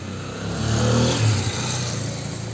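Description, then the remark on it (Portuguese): A car engine rumbles past on a busy street by a university, swelling to a peak around the middle and easing off, with a steady low road hum throughout and no voices. “Nossa, um monte de carro tá passando aqui.”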